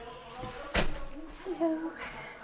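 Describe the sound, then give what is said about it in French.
The door of a modern building is pushed open with one sharp, loud clunk of the latch, followed by a few softer creaks and faint, indistinct voices of about a dozen elderly people having tea over board games in a large open space. “Lorsque je pousse la porte, je me retrouve dans un vaste espace ouvert, boisé, au milieu duquel une dizaine de petits vieux prennent le thé en jouant à des jeux de société.”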